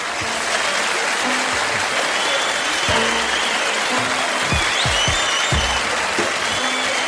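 A crowd claps steadily and loudly for several seconds for The Shiznit Show at Red Rock Studio in Los Angeles, California, a dense wash of applause with a few scattered whoops and sharper claps standing out.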